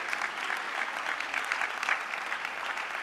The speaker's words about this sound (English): Will you clap your hands if you believe that this morning?